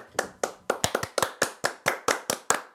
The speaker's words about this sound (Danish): Han fortjente en fucking applaus, altså, seriøst